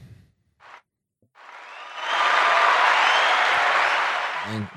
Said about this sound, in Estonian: kui sa iseendale ei plaksuta, siis kes seda ikka teeb?